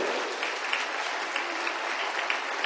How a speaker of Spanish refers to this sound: De un aplauso a Él en esta noche.